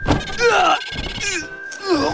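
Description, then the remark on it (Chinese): A single dull, heavy thump lands right at the start as the chick Dundun suddenly raises its big head and rams it hard into the Goose Mayor's rump, followed by strained, wavering vocal groans over a faint steady high tone. “小鸡墩墩猛地抬起大脑袋，结结实实地撞到了白鹅镇长的屁股上。”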